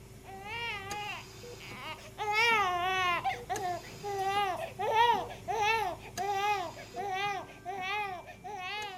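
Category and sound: human body sound, newborn baby crying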